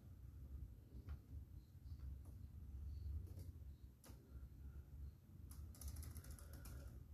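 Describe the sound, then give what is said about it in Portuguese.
Scattered key clicks from a worn, faulty PC keyboard on which only some letters work, a few isolated taps and then a quick burst near the end, over a steady low hum with no one speaking. “É que o teclado do meu PC é uma merda, ele tá todo fodido, então só algumas letras funcionam.”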